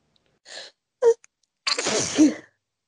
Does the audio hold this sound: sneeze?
yes